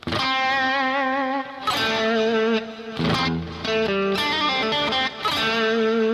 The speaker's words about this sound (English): Now we can go that direction too, and oftentimes the rake or the scrape will happen with this hand you see, so I'm touching, so I'm getting that sound until I get to the last note that I'm looking for.